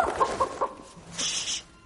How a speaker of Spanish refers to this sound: ¿Esa gallina es parte de tu brillante plan?